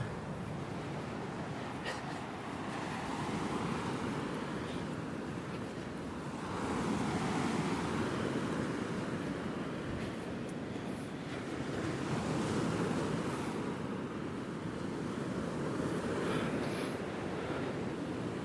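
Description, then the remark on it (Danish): Steady roar of surf washing onto a shore, with broad swells rising around the middle and again later, plus some wind buffeting the microphone. No one speaks. “Skal vi gå tættere på vandet og energien?”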